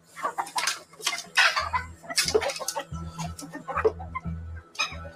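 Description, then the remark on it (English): A flock of chickens, raised inside a high-walled compound, clucks in a busy run of short, overlapping bursts and squawks with no pauses, over a faint low hum. “They were raising chickens.”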